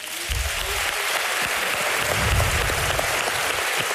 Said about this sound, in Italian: Sta ringraziando Barbera, applauso della sala.